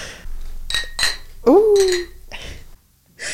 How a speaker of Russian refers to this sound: Давайте чокнемся водой. Давайте чокнемся.